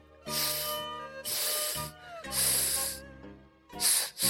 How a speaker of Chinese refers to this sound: 谁知道正巧有一条蟒蛇从那里经过，它发现了狮子，嘶嘶的吐着舌头